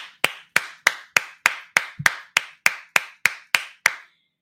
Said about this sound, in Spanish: Vamos a darle un aplauso a Enrique Volkers.